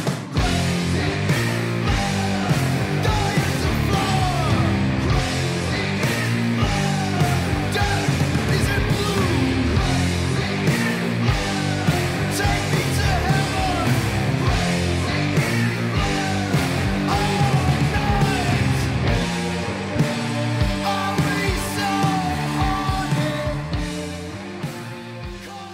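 A loud, dense heavy rock track plays continuously with thick distorted guitars and pounding drums, staying at full volume before dipping slightly in the final seconds.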